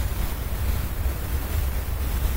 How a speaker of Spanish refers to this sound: Debajo de nosotros las aguas parecen levantarse, como si nos hubiéramos posado sobre una gran burbuja. Algo se desplaza bajo el agua. La canoa corcovea sobre el lomo de una inmensa ola aceitosa.